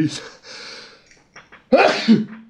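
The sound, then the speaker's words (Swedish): A loud, explosive sneeze bursts out after a few quiet breathy intakes, ending in a brief voiced trailing sound. “Åh oh, jävlar! Ursäkta. Det klipper vi inte bort. Det är bara content. Fan jag behöver snyta mig.”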